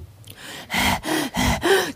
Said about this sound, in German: Keuchend schnappte ich nach Luft.